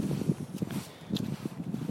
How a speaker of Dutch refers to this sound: Oh, er is heel veel wind nu.